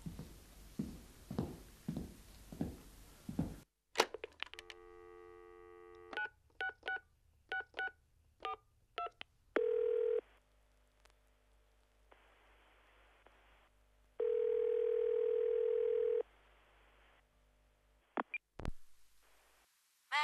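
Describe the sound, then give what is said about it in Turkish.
A rapid string of short telephone keypad tones, about a dozen beeps, followed by two long ringback tones separated by a pause, all clear. “Telefona yöneldi.”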